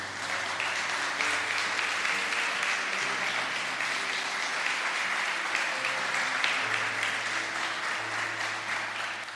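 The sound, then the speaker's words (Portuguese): An audience applauds the Lord in a dense, steady wash of clapping that stays loud for the whole stretch, with low sustained keyboard chords shifting underneath. “Pode aplaudir o Senhor.”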